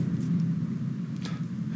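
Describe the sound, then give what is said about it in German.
A steady low engine drone from motorcycles, tuned cars and mopeds at the Nürburgring on a fine-weather day, rumbling continuously with a brief brighter burst partway through, and no voices. “alle holen ihre Motorräder raus und ihre frisierten Autos und Mopeds. Und das hört man jetzt.”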